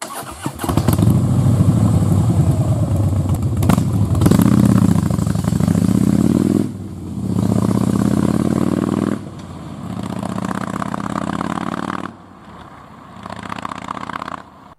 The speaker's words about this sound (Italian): Il commissario Wolf corre fuori dalla trattoria, salta sulla sua Harley Davidson e si dirige in direzione della propria tana.